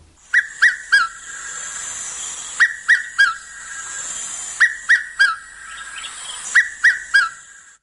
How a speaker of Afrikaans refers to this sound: Hierdie is wel een van my gunsteling dagbreekgeluide. Dit klink na iemand wat inkopies doen en die lysie aflees en dan laastens die alombekende Piet my vrou.